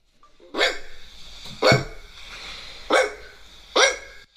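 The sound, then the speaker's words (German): A person imitates a dog barking, giving four short, sharp woofs at uneven intervals, loud, with a faint background hum between them and no other talking. “Ich sag, das ist …. Ja, ich bin auch für …. Ja. Und oh, das ist richtig! Das ah, war ich!”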